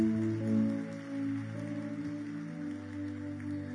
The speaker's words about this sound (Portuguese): Você pode aplaudir ao Espírito de Deus?